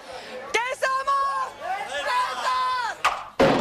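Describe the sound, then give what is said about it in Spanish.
A large crowd at the Carthaginians and Romans festival in Cartagena gives its first battle cry: a loud, sustained collective shout, many voices overlapping and rising, energetic, with a couple of sharp bursts of noise near the end. “Bueno, esto era cuando dieron el primer grito.”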